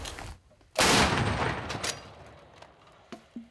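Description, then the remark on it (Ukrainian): A single artillery gun fires one heavy booming shot that rolls and fades slowly over a couple of seconds, with faint clanks afterward and no talking. “Постріл. Важко на гарматі працювати.”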